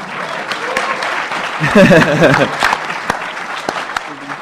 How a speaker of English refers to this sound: Because you can clap if you want. I don't want to stop you from.